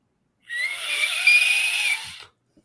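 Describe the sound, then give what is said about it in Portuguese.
One long, steady referee whistle blast of about two seconds, shrill and high-pitched, holding an even tone before cutting off, with no talking over it. “repetir só, só o apito, depois você, você prossegue.”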